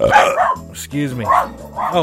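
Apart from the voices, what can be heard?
dog barking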